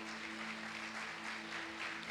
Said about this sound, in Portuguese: Uh, aplauda Jesus porque Ele é bom.